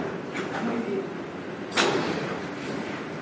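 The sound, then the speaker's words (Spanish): Chairs are pushed back and dragged across a hard floor amid a busy group clearing space, with one sharper knock or scrape standing out partway through and faint voices murmuring underneath. “Si queréis, para que hagamos una fusión grupal, eh, retiráis las sillas hacia atrás y nos ponemos todos aquí abajo.”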